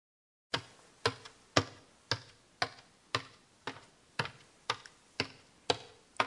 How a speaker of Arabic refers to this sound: هذا صوت خطى شخص يصعد السلم كيف نعبر عن هذا الصوت في اللغة اليابانية؟